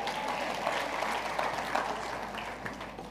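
A crowd applauds steadily for a few seconds, a dense wash of many hands clapping at an even, moderate loudness with no voices standing out.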